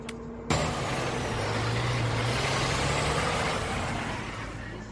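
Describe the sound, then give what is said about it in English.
Steady low engine rumble with a droning hum fills the space, like riding inside a moving bus, with broad road and cabin noise throughout and no voices. “A crazy guy just got on the bus.”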